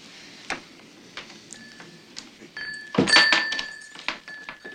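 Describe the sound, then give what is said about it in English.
A sticking door being forced open: scattered knocks and thumps, then one loud jarring bang with a brief scraping squeal, followed by a few lighter clunks, with no talking. “Door sticks.”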